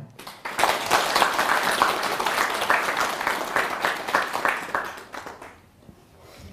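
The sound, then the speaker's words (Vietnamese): Steady audience applause swells quickly, holding as a dense crackle of many hands clapping for several seconds before thinning out and fading near the end. “nếu mà các anh chị thấy rằng là việc học theo hành lắng nghe để giải tỏa nỗi khổ niềm đau của người thân và của chính bản thân mình đó là một hạnh nguyện mà mình có thể làm được thì xin dâng cao tràng pháo tay”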